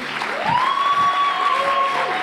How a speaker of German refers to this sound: Hey, lass uns unserer Band einen Applaus geben.